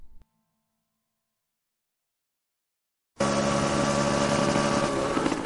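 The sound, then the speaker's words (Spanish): After a few seconds of silence, a dirt bike engine suddenly roars in, loud, with a steady, buzzing drone that holds through the end, as the bike is ridden fast through a large olive grove. “con una moto de cross, recorre velozmente un gran olivar.”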